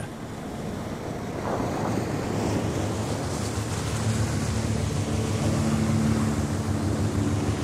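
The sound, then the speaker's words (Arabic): A large ship of the British naval fleet churns steadily through the sea toward Çanakkale near the Dardanelles Strait in calm, still weather with light air, waves rushing and wind blowing across the microphone, with a low engine hum and faint tonal drone building underneath; no voices. “ها هو ذا الأسطول البحري البريطاني يتقدم باتجاه تشانكالي المعروفة باللغة العربية بجناق قلعة قرب مضيق الدردنيل”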